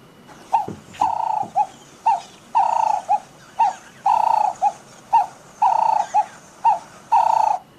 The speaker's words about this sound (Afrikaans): Vermoedelik verwys die luisteraar na die Kaapse tortelduif wat so klink.